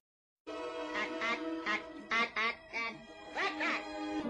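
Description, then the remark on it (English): A person's voice imitates squawking alien chatter: a continuous run of nasal, quacking, duck-like babble with choppy bursts, loud, lasting about four seconds. “like aliens going like that. And I think that's how they talk in like Mars Attacks”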